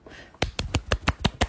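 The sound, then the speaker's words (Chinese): Seven quick, even hand claps in a steady rhythm, each a sharp, crisp slap of moderate loudness, starting after a short quiet moment with no voices. “不错，为他的马屁鼓掌。”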